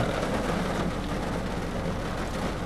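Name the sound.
heavy rain outside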